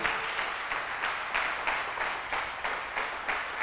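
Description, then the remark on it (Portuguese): An audience applauds Jesus steadily, a dense wash of many hands clapping at an even, sustained level with no voices standing out. “Você podia dar um aplauso a Jesus aí.”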